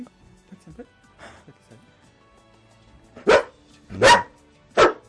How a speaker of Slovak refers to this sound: Mohutný štekot naozaj. Uh, práve tento jeho štekot mm. je veľmi dôležitý, mm-hmm. pretože uh, je to spôsob, akým ten pes nám oznámi, že našiel niečo. Že niekoho našiel.